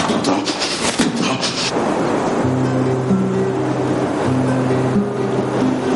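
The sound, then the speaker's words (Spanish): Steady, rushing surf of waves washing onto a beach, a continuous broad roar, joined partway through by low, sustained droning tones that hold under the water noise. “Luego, en la playa, Nicolás tira piedras al agua”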